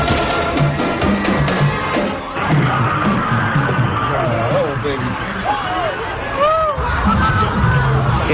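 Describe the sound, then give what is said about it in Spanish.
A loud, dense crowd at a Christmas parade in Wisconsin, United States, clamors nonstop as an SUV runs into the crowd, and several high, wavering screams and yells rise above the hubbub in the second half, some sliding up and down in pitch. “el eh, sonido, el momento en el que se producía ese atropello en ese desfile navideño en Wisconsin.”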